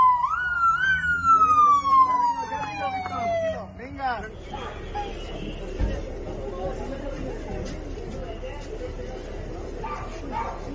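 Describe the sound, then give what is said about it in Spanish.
A police patrol car siren wails, one loud sweep falling in pitch over the first few seconds, then fades into a noisy crowd with people talking and shouting. “La patrulla, güey.”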